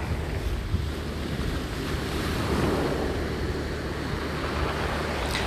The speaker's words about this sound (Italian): Concentrati solo sul respiro, concentrati sul suono delle onde, su i raggi del sole sul tuo viso, tieni sempre gli occhi chiusi e respira, respira, respira lentamente, piano piano.